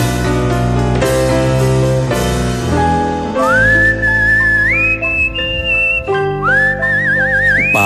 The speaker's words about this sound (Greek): Πάνω εδώ στο γλυκό σφύριγμα